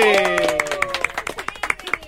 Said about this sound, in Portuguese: Mas eu quero pedir a vocês que me ajudem saudando com uma salva de palmas nossa estreante da noite!